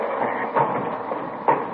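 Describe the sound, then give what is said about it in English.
A window scrapes and rumbles as two people push it all the way up, a steady grinding slide broken by two sharper knocks as the sash catches and jolts. No one speaks. “I'll give you a hand with the window.”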